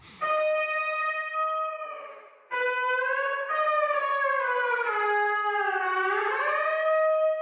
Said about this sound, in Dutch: En die zanglijn is uiteindelijk dat gitaarpartijtje geworden. Klopt. Ja, uiteindelijk hebben we dat gewoon gespeeld met gitaar en, en heel veel synths. En dat, dat was het uiteindelijk. ja, misschien kunnen we die, uh, die gitaargesolo laten horen.